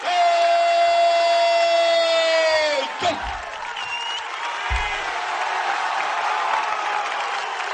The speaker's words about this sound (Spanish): gente que aplaude, gente que grita, gente que anima. Esto es un espectáculo que hay cada día en ese punto fronterizo,